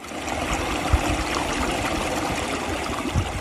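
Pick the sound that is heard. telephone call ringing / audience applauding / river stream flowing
river stream flowing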